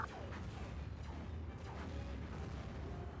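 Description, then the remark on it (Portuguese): Repeated zapping bursts of cartoon laser gunfire crackle with sparks over a steady, rumbling low roar, firing in quick succession for the whole stretch, loud with no talking. “beleza, tiro de laser para tudo que é lado agora.”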